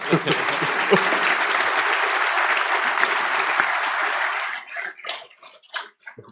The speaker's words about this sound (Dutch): En het is misschien belangrijk dat u een hartelijk applaus geeft voor Beatrice de Graaf.